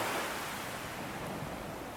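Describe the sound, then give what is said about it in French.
Steady roar of ocean surf washing onto the shore, a dense, continuous hiss of breaking waves with gentle swells, heard alone at moderate volume with no voices. “Le bruit du roulement des vagues est hypnotisant, il calme les esprits.”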